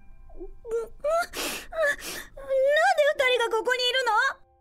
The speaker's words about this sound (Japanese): 泣いてるのか